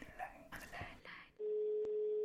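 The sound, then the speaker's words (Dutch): Faint murmured voices give way to a loud, steady mid-pitched telephone line tone holding for about a second, broken by two short clicks as a caller connects to a phone-in whisper line. “Partij aan de lijn.”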